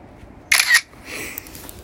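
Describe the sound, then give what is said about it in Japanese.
A single crisp smartphone camera shutter click, sharp and bright, taking a photo of two rows of hot drinks including corn potage, honey lemon and hot Calpis milk, followed by a softer mechanical whir fading out; no talking. “はいじゃあ今これ写真撮っとこねサウネにしますんでねえー、っとホットが並んでるところの2列をね2段”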